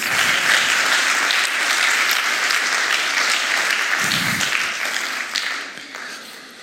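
An audience claps steadily in a dense, loud wash of applause that holds for several seconds, then gradually thins and fades toward the end.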